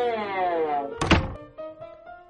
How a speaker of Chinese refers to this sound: 直到有一天，他听到了轻轻的敲门声。